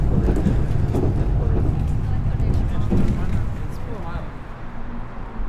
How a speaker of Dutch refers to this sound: Met dit voorspoedige, zachte dreunen van de trein zal ik eens eventjes eh, bij gaan slapen.